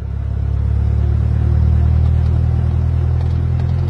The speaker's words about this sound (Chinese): 轰隆隆的马达声响起来了，第一次试飞开始。